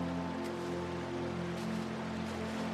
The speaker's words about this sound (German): Wie beruhigend das Rauschen des Flusses doch ist. Fast alle anderen Geräusche versinken darin nur unsere Schritte auf dem sandigen Untergrund sind noch zu vernehmen.